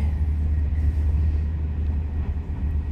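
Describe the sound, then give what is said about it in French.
A train braking again on its way to Paris, heard as a steady, heavy low rumble with a faint hiss above it, holding loud and even for the whole few seconds with no voices. “Le train a de nouveau freiné. C'est fort.”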